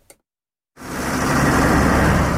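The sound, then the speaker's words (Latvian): A slow-moving convoy of about 150 tractors, driven by Zemgale farmers on a roughly 20 km protest drive from the Latraps grain cooperative headquarters to Jelgava, runs with a loud, steady diesel rumble that starts abruptly after a short silence and continues, with no talking. “Zemgales zemnieki ar aptuveni 150 traktoriem šodien devās protesta braucienā maršrutā no graudu kooperatīva Latraps galvenās mītnes elejā uz Jēlgavu.”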